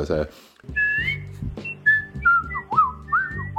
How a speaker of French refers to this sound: J'ai parfaitement reconnu le travail de quelqu'un qui s'exerce à siffler correctement euh, le passage sifflé donc de euh,